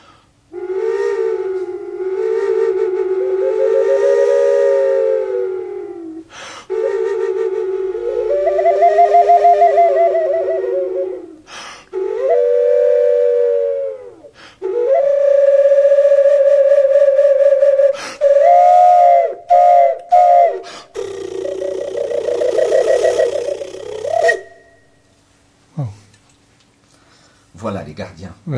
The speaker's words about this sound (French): Donc euh, un petit extrait euh, sonore de cette flûte tripe serpent.